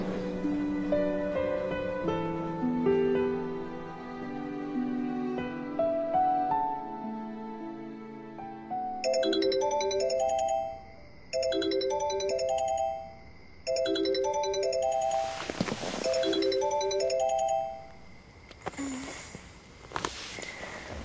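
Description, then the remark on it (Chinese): A phone's bright electronic ringtone repeats a short chiming melody three times in steady bursts, following a soft melodic passage, then gives way to a few brief rustling noises. “太好了，你总算接电话了，你没事吧？”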